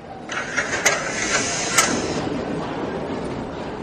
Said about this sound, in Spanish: El metro se acerca, se detiene